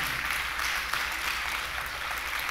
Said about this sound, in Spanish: Dale ese aplauso al Rey. Amén.